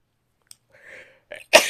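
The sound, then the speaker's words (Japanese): A single loud sneeze, just after waking up, bursts out after a short wind-up of breathy inhales, ending in a sharp explosive release with no talking. “起きかけでくしゃみが出てしまいました。”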